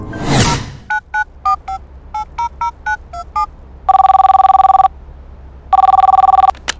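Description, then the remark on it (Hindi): A quick whoosh, then a rapid run of short keypad beeps as a number is dialed, followed by two long, steady ringback tones of an outgoing phone call. No one speaks. “हमेशा मैं फोन करता था कि नई नई है मुंबई में कहीं रास्ता ना भूल जाए कोई दूसरी प्रॉब्लम ना आ जाए तो मैं ही उसे फ़ोन किया करता था”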